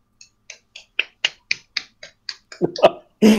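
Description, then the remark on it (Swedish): About a dozen crisp finger snaps in a quick, steady rhythm, fairly loud, given as a standing ovation; a voice briefly breaks in near the end. “Stå, stående ovationer från Samuel där.”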